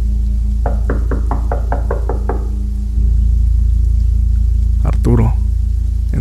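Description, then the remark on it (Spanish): A rapid, evenly spaced series of about eight knocks on the door of a house on a very dark, silent night in the small hours, distinct over a steady low hum, followed after a pause by a brief muffled sound. “Y así fue, hasta que una noche muy oscura y silenciosa, durante plena madrugada, escuchó que alguien estaba tocando a la puerta de su casa.”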